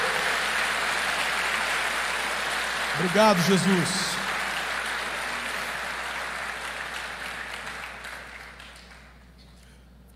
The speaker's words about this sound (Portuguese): Se você recebe essa palavra, aplauda Jesus de novo.